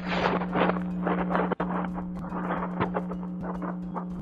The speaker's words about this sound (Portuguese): E eu... eu só mexi aqui o microfone um pouquinho pra cima. A gente percebeu. Ficou nítido.